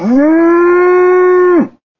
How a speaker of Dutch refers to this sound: De koe stond er bewegingloos bij, met gebogen kop. Een keer loeide ze klaaglijk